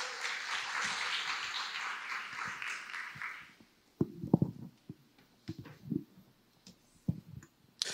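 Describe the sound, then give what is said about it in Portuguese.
A church audience breaks into dense, steady applause to welcome the pastor bringing the sermon, lasting about three seconds, then it stops abruptly, leaving scattered low thumps and soft clicks. “Por favor, receba com a salva de palmas.”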